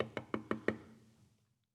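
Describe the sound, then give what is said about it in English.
Four quick, evenly spaced knocks rap hard on a door, an insistent burst that fades into a short hollow ring with no voices. “What kind of knock do you deliver to God? Is it a knock of dependence? Is it an urgent knock?”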